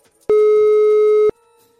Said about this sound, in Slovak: Buď ticho, vytačam.